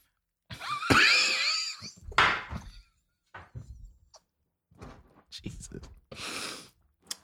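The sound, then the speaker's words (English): Wet slurping of tea through a honey straw in several uneven bursts, one with a thin whistling squeal, separated by short pauses and soft breathy noises. “Sorry, I didn't think that slurp was gonna be.”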